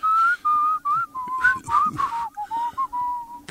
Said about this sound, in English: Give us the whistle again,